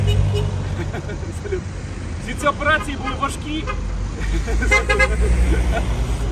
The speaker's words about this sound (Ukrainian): сигналять.